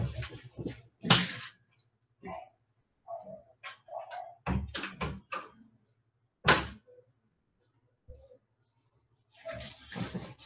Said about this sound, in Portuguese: Desculpa, passou um vento aqui que abriu a porta.